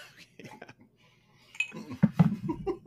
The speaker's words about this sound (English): Uh, that mic is incredible, man. I, to pick up the sound of the ice clanking in your glass like that's nice.